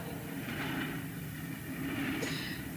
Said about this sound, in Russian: Скорый поезд номер 75 Ростов-Москва следует по первому пути без остановки. Внимание, поезд следует без остановки.